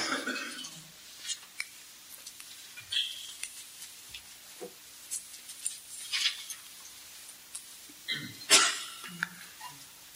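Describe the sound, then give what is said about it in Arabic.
A single loud sneeze bursts out near the end, against a quiet background with faint scattered clicks and rustles. “رحمك الله”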